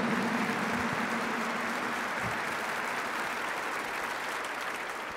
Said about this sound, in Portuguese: Acolhemos a todos com alegria, com uma salva de palmas, nós nos saudamos uns aos outros. Bem-vindos!